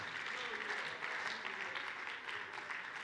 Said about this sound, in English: Hallelujah. Come on, clap your hands until they all get back in here. Don't stop until they all get back in here.